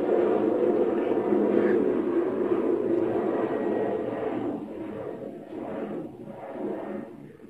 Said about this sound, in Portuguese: Porque é, só deixar o avião passar.